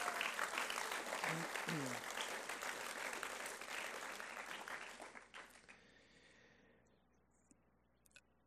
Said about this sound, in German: Yes, geben wir ihnen einen Applaus